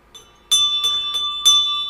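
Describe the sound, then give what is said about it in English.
A ship's bell aboard a boat is struck four times in fairly quick succession, each clang bright and metallic, its tone ringing on between strikes, loud with no voices. “Brian, can you do us a favor and ring the ship's bell?”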